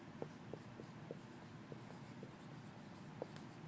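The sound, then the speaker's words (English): Quiet scratching of handwriting in Hebrew letters, with short irregular pen strokes and light taps against a steady low hum, and no one speaking. “But we can go in here and say there was an A sound in there and an E sound in there, but Hebrew is written this way”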